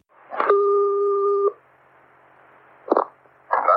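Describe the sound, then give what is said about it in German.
A clear, steady electronic telephone tone sounds once for about a second, then after a short pause come a couple of brief clicks or clatters as a phone call connects. “dass die Begegnung wohl tatsächlich ganz schön war und es sogar kleine Präsente gab, belegt das Telefonat, das die beiden danach geführt haben.”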